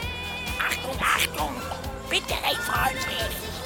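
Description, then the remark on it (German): A talking parrot chatters in a series of short, raspy, speech-like bursts, fairly loud, over a faint steady hum in the background. “Ein sprechender Papagei.”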